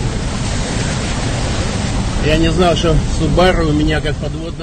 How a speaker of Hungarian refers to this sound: Ömlik a víz Dél-Ukrajna egyik településén kedre víradó reggelre, a felrobbantott Nohakahovkai vízi erőmű közelében.